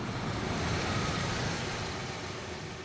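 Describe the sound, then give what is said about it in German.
A car engine rumbles with steady road noise, easing off slightly as the vehicle slows and comes to a stop alongside, about 20 kilometers outside Paderborn. No one speaks. “Rund 20 Kilometer außerhalb von Paderborn stoppt ein Auto neben uns.”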